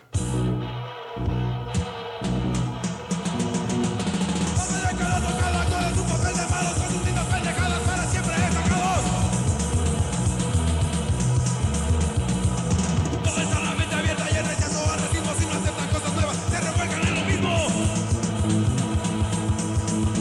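A punk rock song by a Mexican punk band plays loud and dense, with pounding drums, distorted guitars and a steady driving rhythm kicking in after a brief ragged start, with no talking over it.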